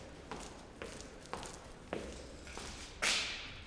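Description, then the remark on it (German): Footsteps at a steady walking pace, about six steps on a hard floor in an exhibition room, each one ringing out briefly in a large echoing hall; the last step lands louder and sharper, with no talking. “Unter meinen Kopfhörern hallt es im Ausstellungsraum himmelhoch.”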